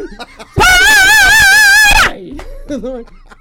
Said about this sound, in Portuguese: Deus ele me deu o dom do grito, eu uso. Nossa, e é um grito ali num, num num si bemol, né? É um grito, é um grito que vem afinado, né?